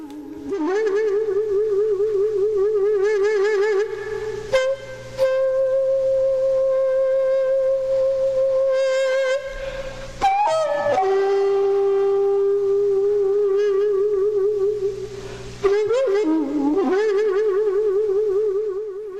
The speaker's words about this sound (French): en effet j'ai choisi d'ouvrir le bal avec des instruments à vent comme le dégume, une flûte traversière en bambou au son grave, parfois semblable à un bourdonnement que je vous invite à écouter maintenant.